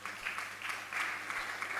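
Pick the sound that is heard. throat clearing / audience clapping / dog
audience clapping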